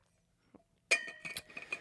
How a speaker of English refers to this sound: you got to make sure you're being hydrating or uh, speaking of which, grab my water. The noisiest water bottle in town.